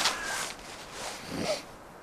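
Harsh, raspy crow caws, a few scattered calls in a short burst against an outdoor background, faint.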